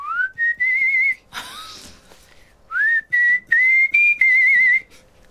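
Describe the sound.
A person whistles a short, bright melody, with sustained notes broken into phrases and a brief breathy rush partway through. No one speaks.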